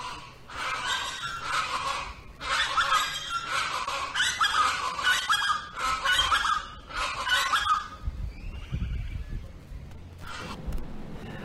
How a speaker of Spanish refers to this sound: Pues ahí están las tradicionales chachalacas que aquí en Chetumal muchísima gente eh, ve que se, posan en sus, árboles y pues nada más ahí para presumirles, esto en las grandes urbes, en las grandes ciudades ya no se ve, solamente aquí en, ah.